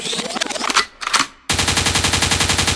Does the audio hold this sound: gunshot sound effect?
yes